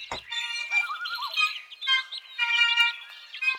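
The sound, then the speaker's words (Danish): Several birds chirp and tweet continuously in a busy, overlapping chorus of high, warbling calls, moderately loud, with a brief low thump at the very start. “Jo, og de der fugle.”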